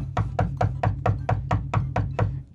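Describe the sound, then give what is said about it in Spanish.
About ten quick, evenly spaced knocks on a bedroom door, an elderly man knocking on his wife's door, a steady rapid rhythm of solid thuds, fairly loud, with no voices. “Se mete al cuarto el viejito y le toca la puerta a la viejita, la esposa.”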